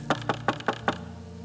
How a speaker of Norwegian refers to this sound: Som det står i Bibelen, Johannes' åpenbaringsbok, kapittel 3, vers 20. Se, jeg står for døren og banker.